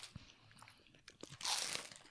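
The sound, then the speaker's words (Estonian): A crunchy chicken-flavoured snack is broken into pieces: it snaps and crumbles, with a few small crackles leading into a loud, bright crunch that lasts about half a second, then quieter crumbling. No talking. “oi, see läks veits katki praegu. no võtan selle ise, sest ma lõikasin selle, lõin selle puruks”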